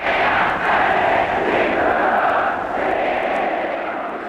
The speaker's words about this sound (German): Knapp 50.000 schwedische Fans sind im Ullevi-Stadion von Göteborg. Kaum deutsche Schlachtenbummler. Eine Stunde vor Anpfiff haben vier Männer damit begonnen, per Megafon mit dem Publikum einen Sprechchor einzuüben.